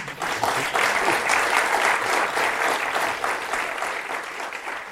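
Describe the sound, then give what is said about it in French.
Sustained applause from a crowd thanking the speakers at the end of a festival week dedicated to Dune, dense steady clapping that stays loud and even for the full five seconds with no voices rising above it. “En tout cas, nous avons pris énormément de plaisir à vous écouter et nous vous remercions et vous applaudissons.”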